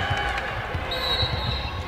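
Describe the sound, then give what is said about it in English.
A referee's whistle sounds one sustained, shrill, high-pitched blast lasting under a second, calling a foul on Western (WKU) in a women's basketball game. It cuts over the steady murmur of the crowd and low, thudding ball bounces. “Whistle.”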